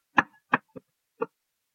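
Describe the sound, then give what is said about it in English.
Four sharp knocks in an uneven rhythm, mimicking someone rapping on a door: three fairly quick raps, a pause, then a final one, with no voices. “They kind of peek inside a little bit, and you watch them do a, a knock on the door.”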